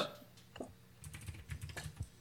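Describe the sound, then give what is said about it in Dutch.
Soft scratching and tapping of pens as quiz players write their answers on small slips of paper, in short irregular strokes with brief pauses, fairly quiet with no talking. “En voordat jullie gaan antwoorden, dit mogen jullie op jullie briefje schrijven.”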